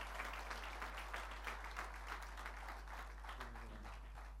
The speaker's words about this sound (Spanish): pase por favor a este lugar para que usted salude a la iglesia y la iglesia da ese fuerte aplauso de alabanza al Señor.